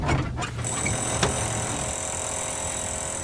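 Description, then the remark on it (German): A motorized drill spins up and bores steadily, a high, constant whine riding over a continuous grinding rumble, with one brief sharp knock partway through. No one speaks. “Wir schalten den Motor an. Alles aufgepasst, zurücktreten.”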